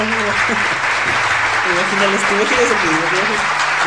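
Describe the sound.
Steady, dense audience applause welcoming a guest fills the whole four seconds. It is loud and continuous, with voices speaking and calling out underneath the clapping.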